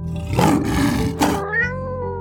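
A rough, growling cat-like yowl gives way to a short, higher-pitched meow like a kitten's, both fairly loud with no talking.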